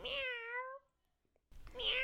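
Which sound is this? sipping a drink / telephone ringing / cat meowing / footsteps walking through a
cat meowing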